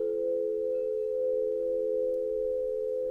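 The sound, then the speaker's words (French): A crystal singing bowl rings out a single pure, sustained tone, smooth and steady in loudness throughout, with a faint shimmer and no voices. “Aux doux son des bols de cristal”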